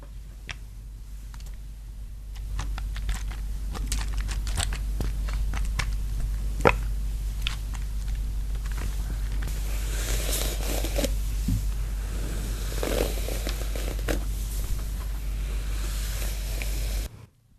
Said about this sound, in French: Pour que vous compreniez mieux, on vous fait écouter un extrait de la vidéo ASMR